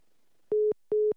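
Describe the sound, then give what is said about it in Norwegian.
Two steady electronic beeps of a phone line tone as a dropped call is redialed, each about a fifth of a second long with a short gap between, at one fixed mid pitch, loud and clear with no talking. “Da må vi prøve å ringe han, eh, han opp igjen.”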